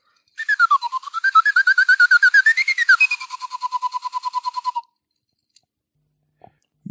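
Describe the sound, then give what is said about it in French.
A small whistle blown in a rapid, fluttering trill for about four seconds, its pitch wavering and then dropping lower before it stops, followed by quiet with a couple of faint clicks. “Et je voilà un petit sifflet pour terminer.”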